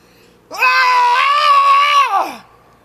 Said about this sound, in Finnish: Ja kun olet valmis, voit lähteä huutamaan ikään kuin lähtisit päästämään irti tuosta stressikokemuksesta, laittaisit sen pois kehostasi. Voit kuvitella, että päästät siitä irti.